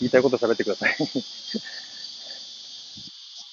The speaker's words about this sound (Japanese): ぜひあの、生でね、この、セミの声を聞いていただいて、夏を感じていただければと思っております。